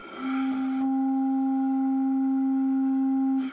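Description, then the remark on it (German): A steady, unwavering reference tone from an electronic tuner, used while tuning a pipe, holds one pitch for about three seconds, clear and fairly loud against a quiet background, then stops abruptly. “Jetzt greift Zeutel zu seinem Stimmgerät.”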